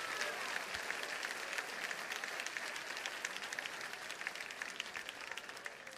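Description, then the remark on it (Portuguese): An audience applauds the Lord Jesus together, a dense, steady wash of many hands clapping that holds at an even level for about six seconds without speech over it. “Se você está comigo, aplauda ao Senhor Jesus e vamos avançar.”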